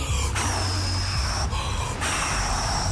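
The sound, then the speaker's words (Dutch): Several people blow very hard together, making a loud, continuous rushing breath that imitates howling storm wind during a story, with brief dips where they pause for air. “Gaan we heel hard waaien, is heel veel wind.”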